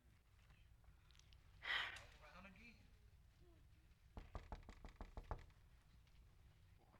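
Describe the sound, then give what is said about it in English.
Someone raps on a door in a quick run of about eight or nine crisp knocks, after a brief breathy sound. “I saw this in a vision, and it, it grieved me. I said, Lord, wait a minute. You stand there and you keep knocking?”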